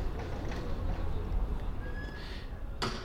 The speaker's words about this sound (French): Le facteur avec son chariot